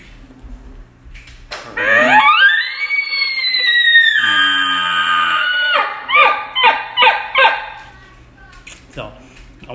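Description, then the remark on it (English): A person imitates an elk's locator bugle by mouth: a rough, low growl at the front sweeps up into a long, high, whistling note, then breaks into a quick series of choppy grunting pulses. Loud. “So you know, this one, I'm gonna try to buzz my lips on this one, and I'm gonna do a little bit of a growl in the front of it too.”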